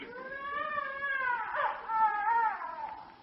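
A child crying in a long, continuous wail that wavers up and down in pitch for about three seconds, fairly loud and with no one talking over it.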